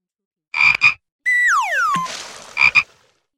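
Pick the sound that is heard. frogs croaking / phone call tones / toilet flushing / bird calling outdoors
frogs croaking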